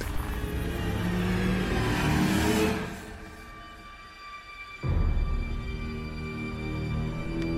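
Car engines rumble and rev as several vehicles move slowly in and out of a parking garage; one fades away after a few seconds, then another engine starts up loudly, with no one talking.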